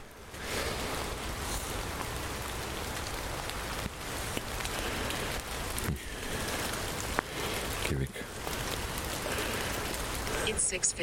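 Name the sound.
rain falling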